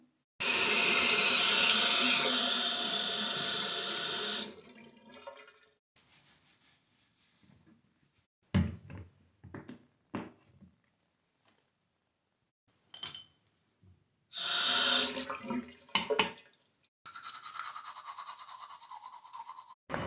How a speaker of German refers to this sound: Und ich mache mich jetzt erstmal fertig mit Zähneputzen und so.